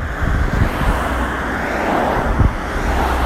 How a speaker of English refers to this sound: I'm forced to walk along the side of a busy road with cars going at over 60 miles an hour in some in most cases